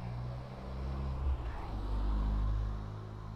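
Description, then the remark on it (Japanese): A car passes by noisily, its engine rumble swelling to a loud peak and then fading away, with steady low-frequency drone throughout. “えーとですね車が来ましたね結構賑やかに来ましたね。”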